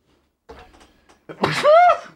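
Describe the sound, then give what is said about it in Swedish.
A single loud sneeze: a short breathy intake, a brief pause, then an explosive burst that trails off in a voiced, wavering tail. “Prosit!”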